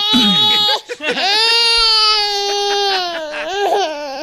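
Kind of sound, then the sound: human body sound, baby crying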